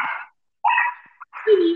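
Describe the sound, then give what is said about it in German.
A dog barks, three loud, sharp barks separated by short pauses, the last one drawn out with a slightly whiny, yelping edge. “ah, süße Hunde.”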